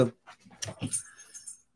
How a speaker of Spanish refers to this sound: Sí, ahí está, mi perro, mira, ahí está, ahí está.